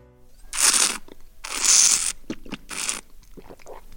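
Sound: slurping wine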